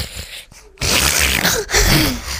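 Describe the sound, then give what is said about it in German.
A voice imitates snoring: a quiet breathy inhale, then a loud, raspy, rattling snore held for over a second, with no other talk. “Schon von weitem hörten die Lasagne und das Fusilli, den Brokkoli, schnarchen.”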